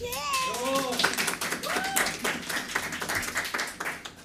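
Audience applause: a steady patter of many hands clapping, with a few high whooping cheers rising over it at the start and again midway.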